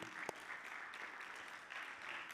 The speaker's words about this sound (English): What a, what a blessing it is to have good music sung and, and leading us in worship. Get, just give them another hand, y'all.